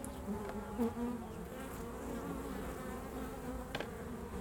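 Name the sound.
honeybees buzzing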